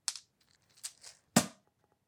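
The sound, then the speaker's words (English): Small hard objects clatter in a few short bursts: a quick rattle, a softer shuffle, then one sharper clack, as a handful of dice is put back into a bag. No voices. “If you'll forgive me, I now need to stick all of my dice that I put my hands back in my bag.”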